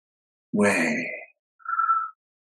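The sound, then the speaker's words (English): A single slow, deep breath taken to connect to God, inhaling the name Yahweh: a raspy, sigh-like inhale, then after a brief pause a softer, airy exhale with a faint whistle. No talking. “So just inhaling this Yahweh.”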